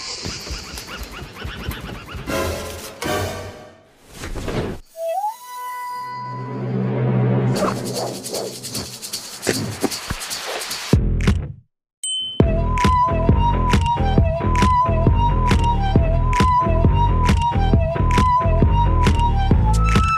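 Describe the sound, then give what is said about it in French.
A flexible saw blade being shaken to make air gives wobbling, warbling metallic tones that bend up and down in pitch, alongside other clattering, rhythmic sounds. The sounds are loud, and no one talks. “Que ce soit une sonnette de vélo ou une lame de scie agitée pour faire de l'air, ils sont jamais à court d'idées.”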